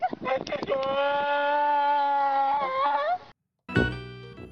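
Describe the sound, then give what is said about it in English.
A donkey brays loudly, one long drawn-out honking call lasting about three seconds, then after a brief silence a second, shorter bray begins. “I've got a sound effect for you for that one. This is a sound altering sound effect. I was walking down the road and I saw a donkey.”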